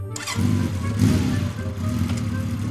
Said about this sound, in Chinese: 他发动了引擎。